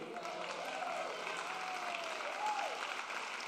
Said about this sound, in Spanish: Ahora, yo aplaudí también